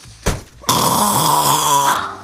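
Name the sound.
voice imitating snoring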